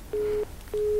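A bad phone connection from a caller on a bus travelling from Saariselkä to Rovaniemi, with no intelligible speech: two sustained electronic tones, each about a third of a second, separated by a brief gap over faint line hiss.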